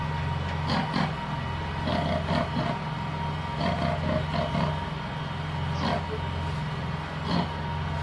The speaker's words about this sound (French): Le marin se glisse dessous et colle son oreille à la coque. Et il essaye d'entendre le grognement que pousse le maigre, car c'est un poisson qui grogne un peu comme un cochon.